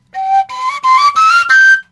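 A breathy wooden Slovak folk shepherd's flute plays five short rising tones, each held briefly with small gaps between, clear with airy overtones and no talking.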